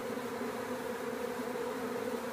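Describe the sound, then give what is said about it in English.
A dense, steady buzzing of a honeybee swarm of between 5,000 and 10,000 bees pouring out of a hive, a continuous droning hum from countless wings, unbroken throughout with no voices. “Whatever the reason, it's a sight to behold, between 5 and 10,000 bees flowing out of the hive like a water torrent.”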